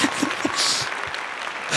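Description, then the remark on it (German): A short burst of crowd applause at a quiz event, for the person operating the buttons; a dense, steady patter of many hands clapping at once, fairly loud, lasting under two seconds with no one speaking. “Das ist echt da kann man Wunder, kurz einen Applaus für mich abholen.”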